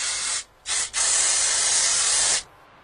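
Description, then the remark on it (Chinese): Loud steam hissing from a volcano, dormant for eight hundred years and about to erupt: two quick bursts, then one long, steady rush of bright, airy hiss that cuts off sharply. No voices are heard. “火山真的发脾气了，先是冒烟，然后是嘶嘶的大喘气，”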